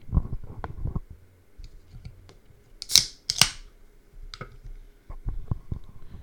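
A sealed Sprite soda can is cracked open, two sharp pops of the tab followed by a brief fizzy hiss, with some quiet handling clicks and rustles around it.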